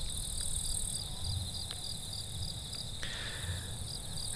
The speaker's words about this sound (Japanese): 9月に入りまして、岩手もだんだん秋めいてまいりました。どうでしょうあのちょっと耳を澄ましてみてください。虫の声など聞こえてきて。